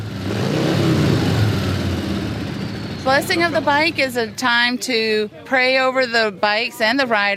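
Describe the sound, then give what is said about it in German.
A Harley-Davidson motorcycle engine roars and revs loudly for a few seconds, then the noise drops away as a man starts talking over a faint background hum. “kein Problem auf der bequemen Harley Davidson Ultra Limited mit ihren breiten Sitzen, weichen Polstern und Lautsprechern, die locker gegen den Motorenlärm andröhnen können.”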